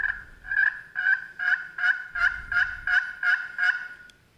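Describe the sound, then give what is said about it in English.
A striker scratched across the freshly scuffed-up side of a friction turkey call, producing a steady run of about nine raspy, evenly spaced yelps, fairly loud, with no talking. “Now, if I flip it to the other side that I just scuffed up, it grabs. It grabs a lot easier.”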